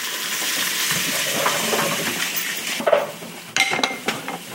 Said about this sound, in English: And I hope you're hearing this okay. If not, that's what the browning sounds like in the pressure cooker.